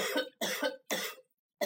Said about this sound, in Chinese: 我說話的時候，你能不能別咳嗽？怎麼總是那麼不合時宜呢？